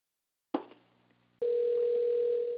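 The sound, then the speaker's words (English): A handset clicks off the hook with a brief rattling hum, then a steady, loud telephone dial tone drones on unbroken to the end. No one speaks. “I'm, I'm, yeah, I'm working two phones right now.”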